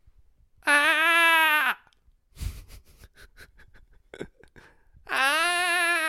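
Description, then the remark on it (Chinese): A person vocally imitates the second call of the black bulbul: two long, loud, harmonic wailing cries, each about a second long and slightly falling in pitch, separated by a stretch of quieter clicks and breathy noises. “那红嘴黑鵯它还有第二个叫声，也是在不同的情况之下会叫。”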